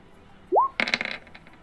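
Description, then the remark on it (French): A brief rising tone gives way to dice clattering across a table, rolled for a charisma plus persuasion check: a quick burst of hard clicks that tumble and settle into a few fading ticks. “Ça rajoute des dés.”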